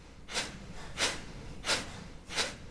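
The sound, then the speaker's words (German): Four airy deep breaths during a yoga exercise in a yoga class follow one another in a steady, quick rhythm, each a soft rushing burst of air, with no talking around them. “Und man kriegt das hier in der Yogastunde immer wieder verdeutlicht, dass man ganz bis in die Schulterspitzen quasi atmen kann.”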